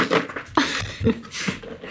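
A dog named Rocky pants in quick, breathy bursts, about four rough huffs in under two seconds, with a faint throaty whine mixed into a couple of them and no talking over it.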